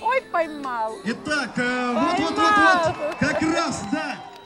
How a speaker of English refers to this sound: No swords here, but plenty of horses and tons of people who've come to watch. They've brought signs and they cheer for their teams as they struggle to rope steers in the arena.